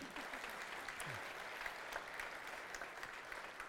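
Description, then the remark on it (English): Steady audience applause, a dense crackle of many hands clapping at a fairly even level throughout, with no one speaking over it. “Give her an applause too.”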